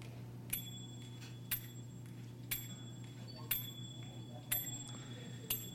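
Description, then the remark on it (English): Fifth graders in a percussion ensemble perform the composition "TikTok Shock" from the book Ensemble, playing a steady pulse of bright, ringing metallic strikes, roughly one per second, over a constant low hum. “So I'd like to share with you my fifth graders performing uh, your composition "TikTok Shock" from your book Ensemble”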